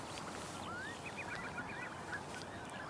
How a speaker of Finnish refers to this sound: mutta hanhet sitten ilmeisesti tietää olevansa mehukkaampi saalis sille kotkalle ja lähtivät, lähtivät sankoon joukoin karkuun.